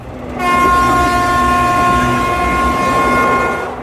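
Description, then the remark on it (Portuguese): A train horn blares in one long, steady blast for several seconds over the rumbling noise of an arriving train rolling in. “O trem seguinte chegou, só que Rachel não.”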